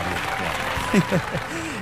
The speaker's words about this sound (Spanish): No cabe duda que Guillermo del Toro se merece todos los aplausos y la ovación del mundo. Producer, por favor, un aplauso y una ovación.